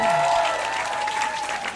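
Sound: audience applause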